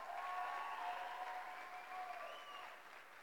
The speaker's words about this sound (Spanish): Si pueden darle un fuerte aplauso a ella.